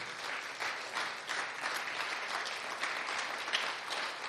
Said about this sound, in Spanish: La gloria a Dios. Démosle un fuerte aplauso a nuestro Señor.